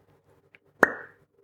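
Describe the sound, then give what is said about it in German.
A single sharp, hollow pop as a cork stopper is pulled from a small bottle of cough syrup, fairly loud, with a brief ringing tail and a faint tap just before. “Und ich mache mal den Deckel auf. Ja, so ein Korken, so ein Stopfen.”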